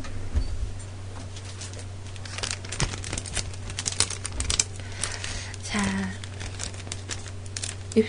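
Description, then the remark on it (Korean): Plastic wrap (vinyl) crinkles and rustles in short, irregular bursts as it is handled for an experiment on touching a screen through it, with a low steady hum underneath and a brief spoken word. “그 주위에 비닐 같은 게 있으면 나도 실험을 한번 해보고 싶은데 어 있다 있다 있다”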